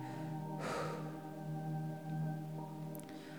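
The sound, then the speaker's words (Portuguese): A single breath rushes out near the start, short and airy, exhaled during a relaxation breathing exercise, over a steady, humming ambient drone that continues after it fades. “E sinta como é gostoso perceber todo o teu corpo relaxando e na hora de soltar o ar, você simplesmente relaxa que o ar sai sozinho assim.”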